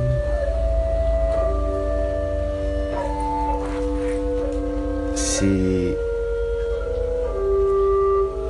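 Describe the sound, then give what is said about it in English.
A synthesized oboe duet plays on an iPad keyboard: two reedy, sustained lines holding long steady notes that step to new pitches every second or two. A voice speaks one brief word. “I'll play the oboe duet on the keyboard.”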